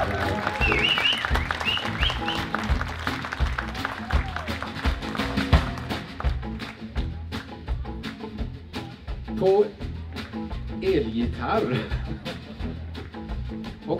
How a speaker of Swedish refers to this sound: Ge honom en stor applåd.